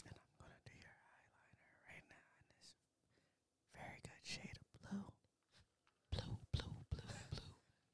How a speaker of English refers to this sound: Everybody be looking at me like I'm weird when they hear her start whispering and shit. she be like, "As I put on this foundation," she be like, "Now I'm gonna do your eyebrows." But it sounds so good.